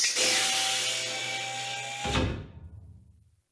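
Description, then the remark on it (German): A sci-fi spaceship door sound effect: a loud, steady mechanical hiss and hum for about two seconds, then a heavy clunk that rumbles and fades away, with no voices. “Ja, das ist die Tür vom Raumschiff”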